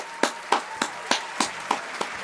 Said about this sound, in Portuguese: Seu Balduco, palmas.